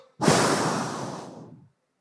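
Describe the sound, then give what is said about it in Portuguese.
A voice imitates a long breath being blown out, depicting God blowing the breath of life into man's nostrils: a single broad, airy whoosh lasting over a second that starts abruptly and slowly fades, fairly loud, with no words. “soprou nas suas narinas o fôlego de vida e o homem se tornou um ser vivente.”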